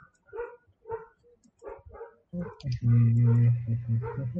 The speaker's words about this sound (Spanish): El perrito quiere, quiere comentar.